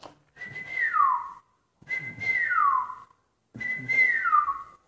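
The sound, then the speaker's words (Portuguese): A person whistles a birdlike call, three clear repeated phrases that each slide downward in pitch, separated by short pauses, steady, with no talking. “Os passarinhos sabem assobiar.”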